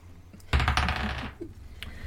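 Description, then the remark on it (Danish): A die clatters and rolls across a hard tabletop in a board game, a quick burst of rapid clicks lasting under a second before it settles to a stop showing a one, against faint background noise. “Men det er jo en ja. etter på terningen.”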